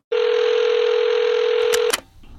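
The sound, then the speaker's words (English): A loud, steady telephone tone hums for almost two seconds at the start of a recorded phone call from January 2012, then a couple of sharp clicks cut it off as the line opens into quiet hiss. No one speaks. “Here's the audio from the phone call describing the event.”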